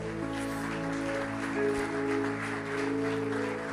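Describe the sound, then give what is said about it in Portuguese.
A church audience applauds God during a worship service with dense, steady clapping that runs the full length, mixed over sustained keyboard chords that hold a continuous tone underneath. “Aleluia, nós aplaudimos o teu nome, Senhor.”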